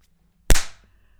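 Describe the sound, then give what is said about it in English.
A single loud, sharp hand clap, given to sync the audio of a recording, cracks out of near silence, its snap fading quickly over a fraction of a second, with no voices around it. “Okay, I'm giving you claps.”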